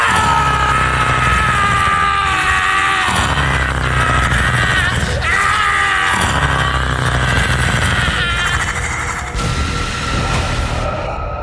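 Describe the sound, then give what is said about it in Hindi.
A chaotic crowd of passersby screaming and yelling in terror at full volume in the middle of a forest, the frantic cries echoing through the area and overlapping continuously before a harsh burst of noise breaks in near the end. “वो देखकर उनकी रूह तक कांप उठी क्योंकि जंगल के बीचों बीच कई चमकती आंखें एक भयानक आवाज करती हुई उनकी तरफ ही बढ़ रही थी और उसके कुछ ही पलों बाद उन राहगिरों की चीखों से वो पूरा इलाका गूंज उठा”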